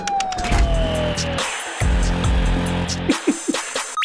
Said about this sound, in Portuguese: Tocou até a sirene que não era pra tocar.